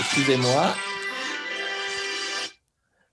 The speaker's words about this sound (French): Excusez-moi, c'est mon téléphone qui sonne, donc oh.